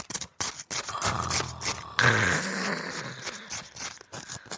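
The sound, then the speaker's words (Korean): A spoon scrapes and stirs through packaged patbingsu, shaved ice with red beans, for ASMR, giving a run of gritty, crunchy scraping strokes in an uneven rhythm, with no talking. “너무 수저를 떠서 너무, 어, 얼음이랑 이제 비비는 소리를 들려드릴게요.”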